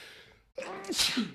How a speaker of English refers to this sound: Bless you, sir. Excuse me. Sorry about that.